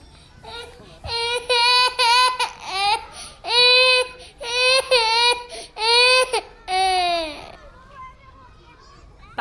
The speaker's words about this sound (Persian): آلیس خیلی ناراحت بود نمیخواست بره من همش گریه میکرد